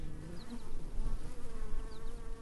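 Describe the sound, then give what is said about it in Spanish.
Honey bees buzz steadily, a continuous droning hum that wavers slightly in pitch and loudness, with no voices present. “Al menos en Colombia, la principal abeja productora de miel es la Apis mellifera.”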